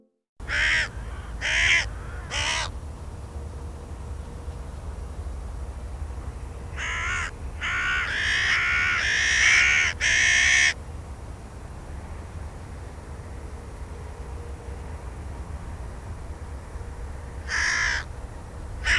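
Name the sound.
crow cawing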